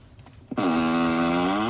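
A synthetic fart sound effect, the 'Falcon exhaust' sound from a Tesla car's novelty fart feature, plays: one long, loud, buzzy blast that starts abruptly, holds a steady low pitch with a slight rise, and lasts just over a second with no talking.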